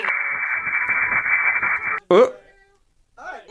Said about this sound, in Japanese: さっきまでよく聞こえてたんですが、急に雑音が大きくなって。